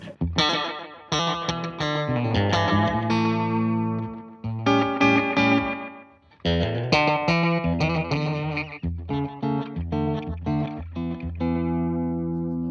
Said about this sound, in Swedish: Här, och... Nu ställde jag upp den till någon sån här slapback. Om du ställer ner reverb-volymen då. Där är eko, ekovolym.